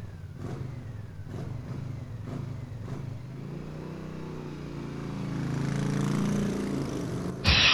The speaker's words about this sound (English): the motorcycle mix was just the same song except a motorcycle was revving at the